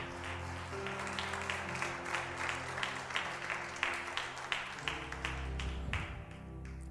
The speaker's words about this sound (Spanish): Dale un aplauso a Jesús con todo tu corazón.